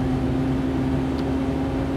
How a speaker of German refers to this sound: zu meinem Physiotherapietermin und höre mein Auto wieder laut von links. Der Vorteil ist, ich kann noch mal fragen, warum der Dreck so laut ist.